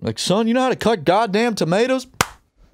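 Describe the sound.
A man speaks in an agitated, raised voice, then stops, and a single sharp hand clap cracks out close by, followed by near silence.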